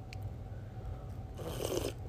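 A single airy slurp of hot tea, a mixture of vanilla chai and English breakfast tea: a soft hissing intake of breath lasting about half a second, over a faint low hum with no talking.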